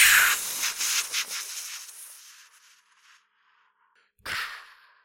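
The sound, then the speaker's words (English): A voice imitates a whoosh of fast movement, a woman suddenly jumping from right in front of a man to 500 meters away, with a long, breathy rush that fades over a couple of seconds, then a short second puff of breath after a pause. “Whoosh!”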